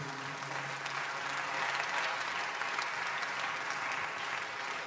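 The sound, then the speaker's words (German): Steady, sustained applause from an audience as a man is invited onto the stage, a dense wash of many hands clapping at an even level throughout, with no voices standing out. “Lass einen Applaus geben.”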